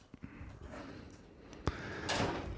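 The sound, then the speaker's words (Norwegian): A door shuts with a single sharp, solid thud partway through, against a steady background hum, followed by a brief rustling shuffle. “Der, der ble døra lukka.”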